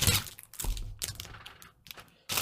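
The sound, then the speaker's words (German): A plastic bag of extras from a magazine is torn open and its contents pulled out: sharp crinkling bursts and rustling plastic in several quick bouts, fairly quiet, with a brief pause before a final loud crackle. “Jetzt reiße ich einfach mal die Tüte hier auf und hol mal alles raus, was sich hier drin befindet.”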